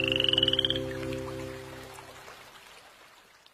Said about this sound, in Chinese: 青蛙的诗写成了， 呱呱，呱呱，呱呱呱，呱呱，呱呱，呱呱呱。